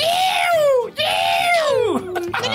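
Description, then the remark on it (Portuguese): A single voice performs a Ceará-style booing jeer: two long, shrill, wavering wails in a high pitch, then a quick falling swoop, loud and strained, with no other talk. “Gostaria de ouvir vocês fazer a vaia cearense, patrimônio mundial dos cabeça chata aqui do Ceará.”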